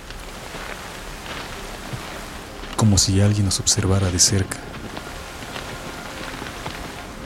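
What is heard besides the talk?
rain falling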